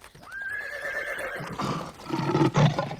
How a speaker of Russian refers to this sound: зарагатаў конь.